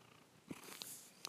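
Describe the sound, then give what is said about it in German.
A cat purrs right at a phone, a soft continuous rumble broken by a few brief clicks and scuffs as the cat takes the phone in its mouth. No one speaks. “Ja, meine Katze ist auch im Start auf jeden Fall. Sag mal Hallo oder miauks einfach.”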